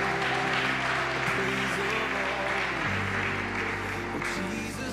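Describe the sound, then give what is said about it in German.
A church audience at a livestreamed morning service claps steadily and loudly in thanks to the band and team, a dense wash of many hands applauding without pause, while a low sustained tone hums beneath and shifts pitch partway through. “Komm, lass uns mal allen, die heute Morgen schon so richtig sich ausgegossen haben, einen Applaus geben und Danke sagen.”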